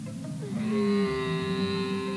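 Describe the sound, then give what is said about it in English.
A camel lets out a drawn-out, groaning bellow, a steady nasal moan with a strained, throaty edge, fairly loud with no talking over it. “what animal is it? Camel. absolutely right.”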